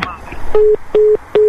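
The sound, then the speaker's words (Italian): A telephone disconnect tone after hang-up: three short, steady mid-pitched beeps in an even, quick on-off rhythm, following a brief moment of voice at the start. “Raga, chiuso.”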